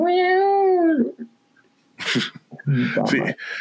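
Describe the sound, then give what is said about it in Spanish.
A single long, high kitten meow rings out clearly from outside and trails off, then after a short pause people start talking. “es que está un gatito aquí afuera, güey, por eso escuché”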